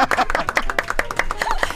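An audience claps steadily for a couple of seconds, a dense patter of overlapping hand claps at a fairly even, moderately loud level with no voices over it.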